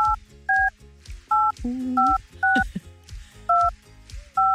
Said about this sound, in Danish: Så vi siger ikke navnet, øh, nu, nu, nu ringer vi bare op, og så håber vi på at telefonen bliver svaret.